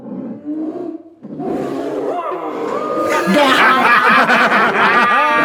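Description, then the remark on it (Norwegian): A person does a rough, hoarse animal imitation, a growling wolf-like howl that swells louder and harsher midway, with chuckling and other voices mixed in. “Ja, ja slekt det, men jeg vil si at du er, du er, nærmere, du er nærmere en ulv. Ja, det er nærmere en ulv, ja. ja. Litt, en litt hes ulv.”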